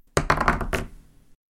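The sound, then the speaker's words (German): A die is thrown and tumbles across a table to pick whose question comes next: a quick run of four or five sharp, hollow clacks that fade out as it settles within about a second, landing on a two. No one speaks. “Und damit lasse ich den Würfel mal rollen.”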